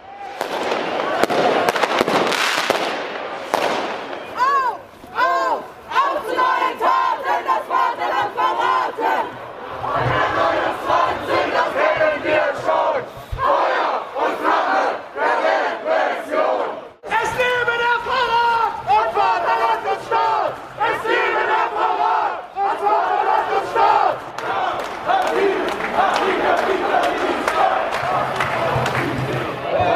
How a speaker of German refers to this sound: Ja, das war ein Ausschnitt von der Free All Antifas Demo in Hamburg, wo im Rahmen von der, vom Tag der politischen Gefangenen stattgefunden hat.